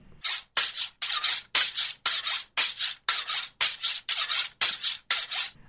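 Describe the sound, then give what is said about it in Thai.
A kitchen knife is sharpened with steady, repeated scraping strokes, about a dozen bright rasping swipes in an even rhythm, fairly loud and likened to swordplay, with no talking. “เสียงนี้คือเสียงของการรับมีดนั่นเองครับมีดที่อยู่ในครัวของเรานะครับ”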